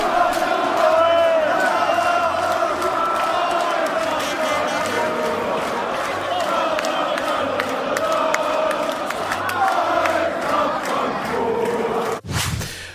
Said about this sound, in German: Und als sie dann doch noch auf den Balkon kamen, naja, wurde auch anderes aus der Fankehle gebrüllt.